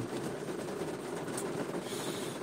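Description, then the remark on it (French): Steady rain pours down in a dense, continuous hiss with a faint patter of drops and a low rumble underneath. It holds an even loudness throughout, and no one speaks. “Mais euh, voilà, maintenant il pleut bien.”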